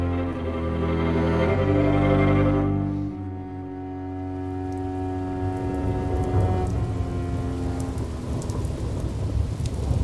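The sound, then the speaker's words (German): Heavy rain drums steadily against windows in East Berlin, capital of the GDR, a dense continuous patter with a deep rumbling undertone, fairly loud throughout, with no voices. “über der DDR-Grenze noch Hagel war, wurde in Rathenow zum Nassschnee und über der Hauptstadt der DDR zum Pladderregen, der an die Fenster klopfte.”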